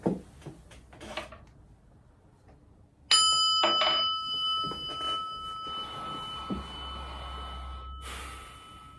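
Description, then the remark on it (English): A single meditation bell is struck once after a few soft breaths to begin a meditation, its clear metallic tone ringing out and slowly fading over several seconds. “So please join me for a little meditation. I'm going to go ahead and ring the bell.”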